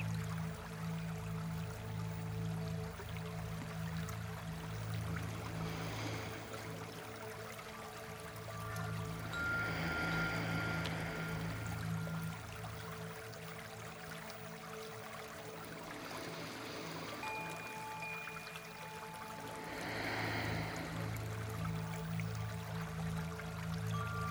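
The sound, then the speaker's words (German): Quiet watery trickling with bright, tinkling droplet tones that swell up every few seconds, like chimes under water, over a steady low hum. No voices. “Hell und klar, aber es so leislig, dass es für den Flick tönt wie ein Windspiel im Wasser”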